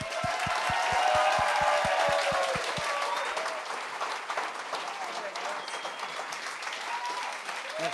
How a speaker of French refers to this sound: Mesdames et messieurs, donnez une bonne main d'applaudissement à Steph Poirier, et Sugar Sammy.